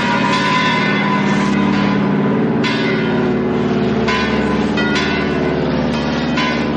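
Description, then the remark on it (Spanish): A priest rings a church bell at a church, its strikes arriving repeatedly and loudly at a steady rhythm with long shimmering overtones that overlap and sustain throughout, with no voices present. “En la iglesia, el cura corre presuroso a tocar la campana.”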